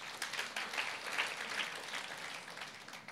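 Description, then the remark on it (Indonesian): An audience applauds steadily for God during a worship service, a dense wash of many hands clapping at once that holds at an even level for several seconds without any voices. “Boleh tepuk tangan buat Tuhan, saudara.”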